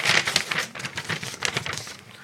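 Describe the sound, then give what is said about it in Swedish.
Scratchy strokes of a yellow pen drag across paper in quick irregular bursts as someone writes, loud and hitting right up against the microphone, with no voices. “lät professionellt och så får man en eh, penna rätt i hörluren.”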